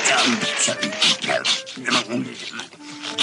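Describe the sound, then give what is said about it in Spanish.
A dog barks and yips several times in quick, uneven bursts, fairly loud, with high whining tones between barks and voices murmuring underneath. “¿Quería haber escuchado el ladrido?”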